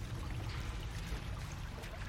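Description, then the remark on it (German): A faint, steady trickle of liquid runs continuously for a couple of seconds as a man drips drops of liquid into a child's ears, soft, with a low rumbling undertone and no voices. “dann kippt er es auf die andere Seite und träufelt dort auch ein paar Tropfen von der Flüssigkeit in die Ohren des Kindes.”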